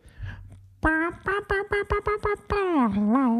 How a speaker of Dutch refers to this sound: Kijk, wat ik hoor dus... ik hoor meer een wauw effect. Steven hoort meer, een, een, een wauw-wauw-pedaal. effect Ja, en ik, ik heb die idee dat ik meer de snaren hoor.